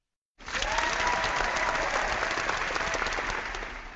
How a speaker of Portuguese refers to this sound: Auditório, manda um salve de palmas para Goiânia.